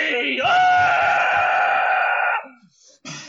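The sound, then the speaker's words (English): Several people scream loudly as they roll down a hill, a sustained scream lasting about two seconds, then cutting off, leaving brief faint rustles and a short burst of noise. “Okay, as you're rolling down the hill, do you scream?”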